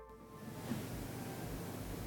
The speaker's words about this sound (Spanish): O sea, ahora, cuando, ahora cuando lo subes se escucha ruido blanco, pero sin el silbío.